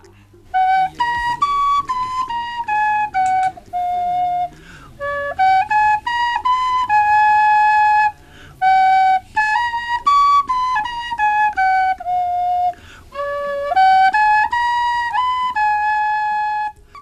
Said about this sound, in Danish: Selv kører han rundt i universet på cykel, eller sidder i et hjørne, iført nissehue og spiller på sin fløjte.